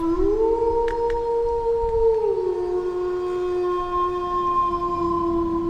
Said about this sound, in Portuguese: O uivo atrás de você parece cada vez mais perto.